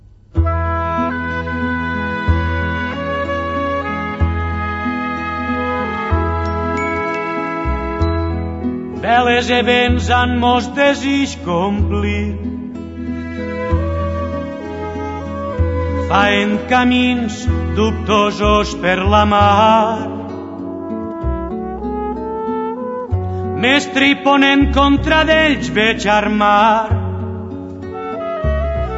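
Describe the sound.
A recorded song by a Catalan singer-songwriter, sung in Catalan, fills the whole stretch: a singer delivers slow, sustained lines over steady instrumental backing, the arrangement swelling into louder, brighter passages before settling back.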